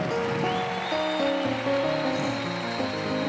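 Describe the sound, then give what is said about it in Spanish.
An audience at a church service applauds to give the Lord a praise, a steady, dense wash of clapping that fills the room, with sustained keyboard or organ chords playing underneath throughout. “Put your hands together and give the Lord a praise.”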